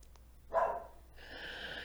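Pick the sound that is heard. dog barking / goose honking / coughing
dog barking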